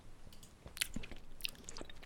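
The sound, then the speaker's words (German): Wet chewing with smacking lips, a run of irregular crunchy and squelchy mouth sounds at low volume, with no talking. “Ich, ich schmatz, aber es ist egal.”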